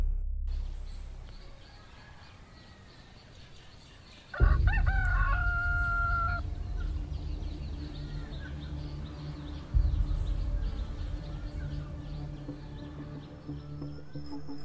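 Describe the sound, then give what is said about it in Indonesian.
A rooster crows once at dawn, loud, its call rising and holding before trailing off, over a steady low outdoor rumble that swells again later; no one speaks. “Ayam berkokok seperti biasa menyambut pagi dengan gembira.”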